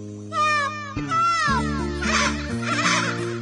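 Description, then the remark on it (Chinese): A baby white-tailed deer cries in a series of high, wavering bleats that rise and fall in pitch, fairly loud, over a steady low droning background tone, with no talking. “哦哦，好像是白尾鹿宝宝的声音，听起来它有麻烦了。”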